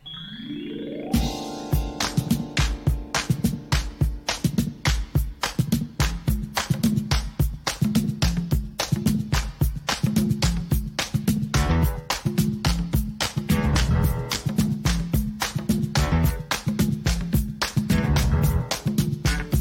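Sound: hip hop song playing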